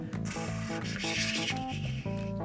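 Rapid, continuous flutter of comic book pages flipping in the opening red-lettered Marvel logo of Marvel films, a dense papery rustle running the whole time, layered over loud sustained tonal sounds that shift in short steps.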